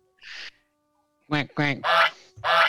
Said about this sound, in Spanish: A ver, déjame poner aquí los ruidos del ganso fifi en la consola.